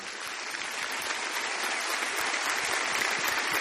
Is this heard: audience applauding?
yes